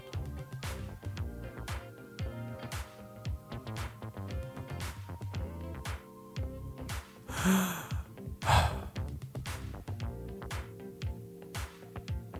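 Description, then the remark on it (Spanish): Two slow, deliberate breaths, a long airy inhale followed by a breathy exhale, over a soft, steady musical background with no talking. “De cómo se pronuncia esa escritura del nombre de Dios es justamente el sonido de la respiración.”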